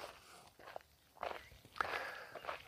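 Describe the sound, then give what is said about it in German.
Four or five footsteps crunch softly across sandy forest ground in a steady walking rhythm, each step a brief gritty scuff with quiet outdoor ambience between them. “Und jetzt müssten die Schritte anders klingen.”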